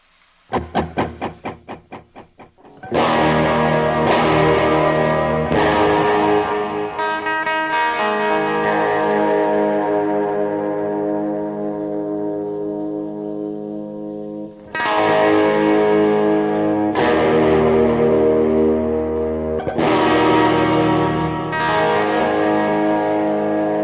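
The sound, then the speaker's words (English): An electric guitar with a Floyd Rose tremolo plays a few quick muted plucks, then loud strummed chords that ring and sustain with a chorus-like shimmer, struck again every few seconds. No voices. “Yeah, this is a real Floyd Rose.”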